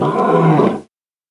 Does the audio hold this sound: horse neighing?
no